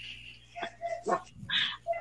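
A dog gives a few short, high-pitched barks and yips in quick succession, moderately loud, with a whiny tonal edge between them.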